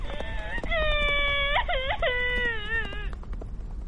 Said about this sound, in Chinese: 这一下可摔得不轻，连新裤子都磕破了。灰灰痛得大声哭了起来。